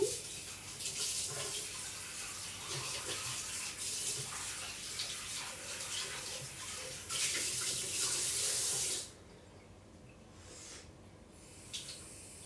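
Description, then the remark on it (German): A tap runs steadily with a broad hissing splash for about nine seconds, the stream shifting as a bowl is rinsed clean beneath it, then shuts off, leaving quiet with faint clinks. “Ich muss ihn jeden Tag säubern.”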